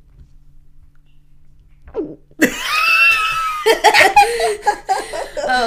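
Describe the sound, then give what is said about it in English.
After a quiet pause, someone makes an exaggerated, cartoonish gulping noise with their voice, close to the mic, then breaks into loud, bubbly laughter with more than one person joining in. “oh that was like a cartoon gulp oh i do it all the time when i'm scared it's like it's like self-soothing to do like a comedic gulp i'll do it up by the mic so people can hear”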